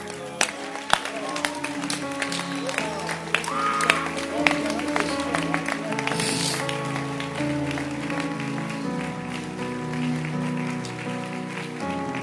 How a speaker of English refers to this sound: Keep clapping. Keep clapping your hands.